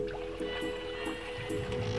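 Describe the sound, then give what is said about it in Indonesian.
Paddle strokes splash and swirl through water at a steady, repeated rhythm from a small kole-kole canoe that fits only three people and is moved by human paddling alone, leaving Pulau Arar in the afternoon, with a constant low engine-like hum underneath and no talking. “Sementara kole-kole yang hanya muat untuk tiga orang ini hanya mengandalkan kekuatan manusia untuk mengayuhnya agar bisa melaju.”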